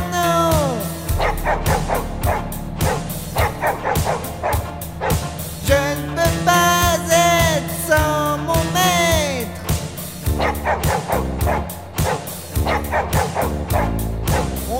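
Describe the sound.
A voice imitates a dog, letting out a run of repeated barks, yips and whimpering howls, loud, over a steady strummed guitar backing throughout.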